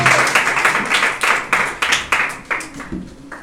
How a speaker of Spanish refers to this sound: la ofrenda de palmas al Señor una vez más, hermano.